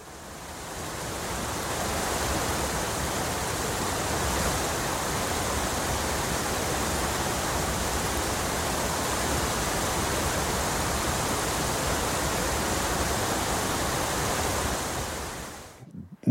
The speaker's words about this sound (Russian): Совершенно замечателен, как мне, по крайней мере, кажется, раздел звуков природы. Вот как, например, звучит водопад